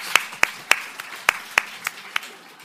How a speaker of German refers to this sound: Dafür vielleicht einen kleinen Applaus.